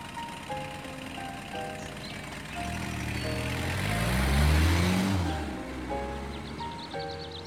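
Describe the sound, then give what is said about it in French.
A car engine rumbles up, grows louder and then fades as the vehicle drives off, while a tinkling chime-like melody plays steadily in the background. “Il la salua à son tour avant qu'elle ne monte dans la voiture. Allez, en route pour chez ton père”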